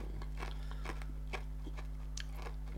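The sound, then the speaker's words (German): Crunching and chewing of hard colored sugar candy, a steady series of sharp, brittle crunches repeating every fraction of a second over a low constant hum, with no talking. “Aber muss man kauen oder lutschen? Was also ich kauen und hoffe, dass es richtig ist.”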